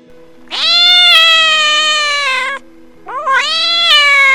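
An angry cat behind an iron gate at night yowls loudly: two long, drawn-out wailing cries, the first about two seconds, the second rising after a short pause. No one speaks.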